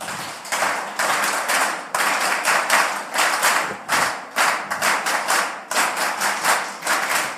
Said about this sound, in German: So, Sie fangen bitte an mit dem Klatschen und wir setzen dann ein. Und drei, vier und.